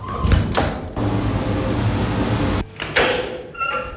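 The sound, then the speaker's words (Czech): A heavy, strong glass door at the Czech Centre for Phenogenomics, leading into a sterile area, slides open with a low mechanical rumble and a steady airy whoosh lasting a couple of seconds, followed by a thud and brief clatter as it settles; no one speaks. “stojíme ve speciálních oblecích před dvěma silnými prosklenými dveřmi. Za nimi je už všechno sterilní.”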